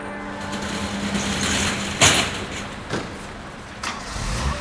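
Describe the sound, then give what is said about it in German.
A delivery van's engine idles with a steady low hum. Several sharp clunks cut through at intervals as drivers slam the van's metal doors. “Es ist nicht das Baby oder der Hund oder die Erinnerungen oder die Geister, die dich wecken. Es sind die Lieferwagen.”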